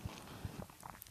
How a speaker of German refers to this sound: Wenn du so kleine Geräusche hier nebenbei hörst, das ist der Hund. Die tapst hier nämlich so ab und zu durch die Gegend. Ähm, genau, das macht dann so kleine Klack, Klack